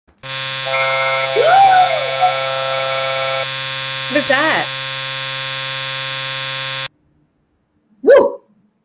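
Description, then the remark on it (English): A loud, steady electronic alert tone drones without a break for about seven seconds, harsh and buzzy, with brief vocal yelps over it and another short yelp just after it stops. “Oh, that's an that's Alert.”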